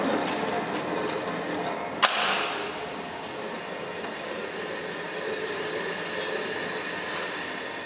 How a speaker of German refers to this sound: jetzt mischen wir erst den Zement mit dem Wasser. Also die ist leiser als meine Küchenmaschine, definitiv. Sie ist auch etwas robuster als Ihre Küchenmaschine. Und gleich kommt noch der Sand rein.